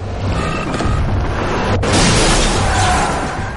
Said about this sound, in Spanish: Otro coche les ha impactado lateralmente.